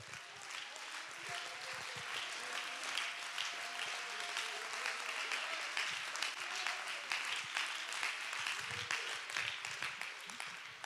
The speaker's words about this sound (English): Clap your hands and give him real praise.